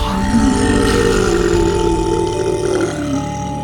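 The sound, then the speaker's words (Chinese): A huge, deep roar from a crack in the sky rumbles on for several seconds without a break, loud and growling with a steady low pitch that wavers slightly. No one speaks over it. “那天空的裂缝不断地传出巨大的嘶吼声，啊！”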